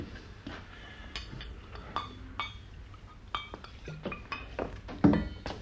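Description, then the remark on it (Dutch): Drinking glasses clink against one another again and again at an irregular pace while being filled, bright, ringing taps over a low background murmur, with no one speaking. “schenk jij die, die glazen voor, hè? We drinken op het succes van de Carmen.”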